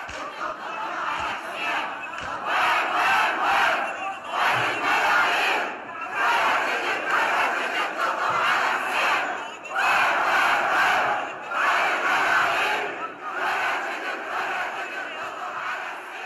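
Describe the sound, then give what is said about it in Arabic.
A large crowd chants Husseini radat as protest chants during the Tishreen (October) protests, in loud, rhythmic unison, the phrases repeating steadily with brief pauses every few seconds between them. “استخدمت تشرين وشبابها أنماط وأشكال مختلفة من أنواع الاحتجاجات منها الغناء والموسيقى ورسوم الجرافيتي وتصوير الكليبات والردات الحسينية”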